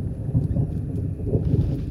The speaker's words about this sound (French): Un orage approche. Le ciel est menaçant et gronde.